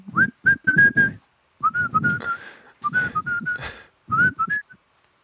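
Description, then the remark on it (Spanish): A puppet whistles a short melodic tune in a film, in three or four quick phrases of bright, wavering notes separated by brief pauses, with breathy sounds audible between notes. “Eh, por el hilo musical les ponen la canción del serrucho y luego aparece, y luego aparece un muñeco silbando.”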